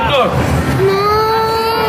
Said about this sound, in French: Et quand il apparaît dans la vidéo, t'entends juste à la fin tout pile avec le cut les enfants qui pleurent tellement ils ont peur de ce truc.